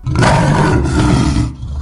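A lion's deep, rumbling roar fills nearly two seconds, loud, sustained with a gritty growl before tapering off at the end. No one speaks.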